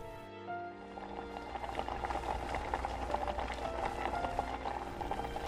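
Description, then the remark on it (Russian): A pot of soup broth with sujebi dumplings boils steadily, with a dense bubbling texture and small pops that continue throughout. The sound is moderately loud, with no talking. “Увидев, как клетки падают в бульон из рук матери и закипают, Тонгиль почувствовал урчание в животе.”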